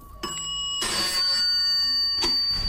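An old telephone bell rings loudly and continuously, a bright metallic jangle with a few sharp bursts as the ringing starts and swells, with no voices.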